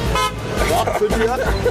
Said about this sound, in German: Ich fahre die Schwanthaler Straße lang, vorbei an den hupenden Autos